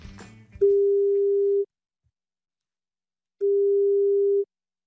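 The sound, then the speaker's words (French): A telephone ringback tone of an outgoing early-morning call made by RTL radio to wish someone a happy birthday: two steady, clear, mid-pitched beeps, each about a second long, separated by a longer silence, after a brief muffled clatter. “on va quand même essayer de lui passer un petit coup de fil avec un peu de chance s'il est réveillé pour lui souhaiter un bon anniversaire.”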